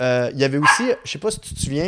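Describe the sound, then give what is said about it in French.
A dog barks a few times, the sharp yaps cutting in over a man who keeps talking through them. “Excuse-moi pour le chien.”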